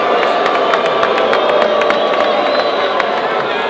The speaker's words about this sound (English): Oh, he's getting booed tonight, Wow. The fans, the fans agree.